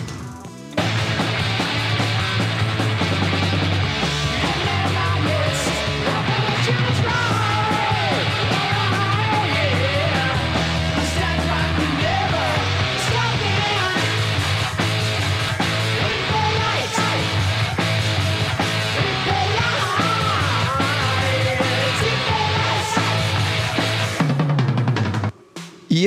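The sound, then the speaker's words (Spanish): A raw, lo-fi heavy metal demo recording by a band from around 1982 plays loud and dense for about 25 seconds, with distorted guitars and pounding drums filling the mix before it cuts off abruptly. “Este es el demo de … que ustedes pueden este, checar en, pues en, la, página de, de …”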